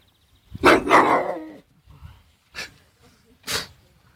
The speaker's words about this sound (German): Okay, ist auf jeden Fall. Ist auf jeden Fall ein kleiner Hund. Ja, ich glaube auch.